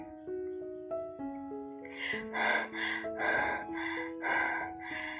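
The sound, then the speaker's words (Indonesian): Heavy, rapid panting and gasping for breath from a person running as fast as possible to an exit comes in about halfway through, a quick rhythmic run of loud breaths over a steady melodic music bed that plays throughout. “Nafasku benar-benar kacau. Aku berlari secepat mungkin ke pintu keluar.”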